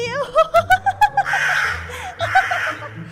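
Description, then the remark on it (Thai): A crow perched in a tree caws loudly: a quick run of short, rhythmic calls, then two long, harsh, raspy caws with a brief pause between them. “ด้วยความดีใจ เจ้ากาจึงได้ตะโกนเสียงดังไม่หยุด”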